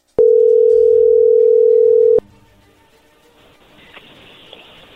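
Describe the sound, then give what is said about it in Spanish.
A steady, loud telephone dial tone holds a single mid pitch for about two seconds as a phone call is being dialed, then cuts off abruptly, leaving a faint line hiss and murmur with a couple of soft clicks. “ahí se está marcando”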